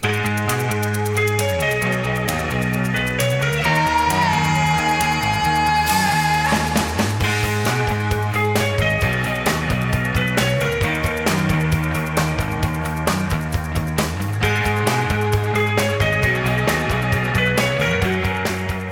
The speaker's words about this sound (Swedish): Det här är YouTube med … från år 1982. Den låter så här.